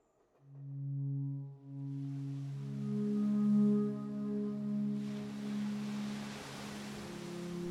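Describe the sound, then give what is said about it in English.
Beach ambience at Brighton Beach at eleven PM: deep, sustained horn-like tones drone throughout while a soft hiss of waves and surf swells up in the second half. No voices. “Eleven PM Brighton Beach. Smell of salt water, bonfire, rancid hot dog wrappers.”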